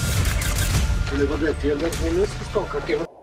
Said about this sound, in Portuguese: Olha, né? os caras quase tomaram um tiro aí. pra quem não viu, foi aí que eles quase tomaram um tiro, tá?